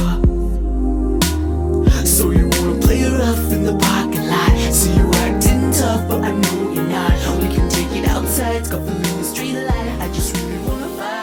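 Loud, dense electronic pop with pounding bass hits, bright crackling synths, experimental sounds and heavily processed, distorted singing over a fast, busy beat, in a hyperpop style.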